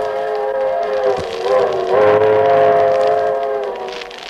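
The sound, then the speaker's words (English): A passenger train carrying Jack Benny and his gang from New York to Hollywood, California, a day before their arrival, rolls along the tracks: a loud, steady rumble with a sustained tonal hum that swells slightly midway, heard alone with no voices. “So now we take you aboard the train where we pick them up one day before their arrival in Hollywood.”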